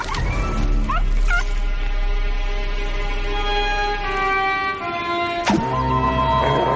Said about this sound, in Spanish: El ave se burla otra vez de él. El perro gruñe, pero mira asustado hacia abajo.